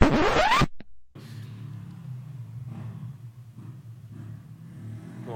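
A motorcycle engine revs sharply up close for a moment, then settles into a steady low rumble that drones on outside as the bike moves past. No one speaks.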